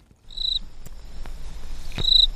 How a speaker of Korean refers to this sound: 아, 귀뚜라미 소리군요. 네, 가을의 전령, 귀뚜라미.